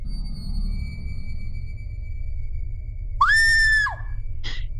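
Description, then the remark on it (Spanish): A person suddenly lets out a loud, shrill scream of fright lasting under a second, followed by a brief second yelp, over a quiet low rumble with no talking; the person screams in the dark because they think there is a spider. “Ay, no grites así, me asustaste.”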